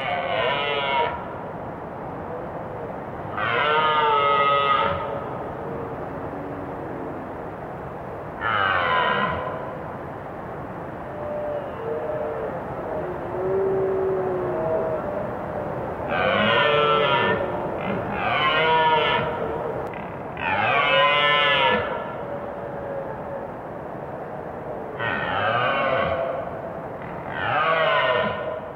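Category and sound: animal, red deer stags roaring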